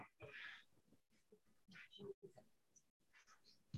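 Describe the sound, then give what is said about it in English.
A single sharp sneeze bursts out at the start, followed by quieter scattered vocal noises and faint mumbling. “Bless you.”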